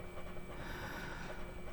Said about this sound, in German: Nur das Surren der Rechner und die Klimaanlage.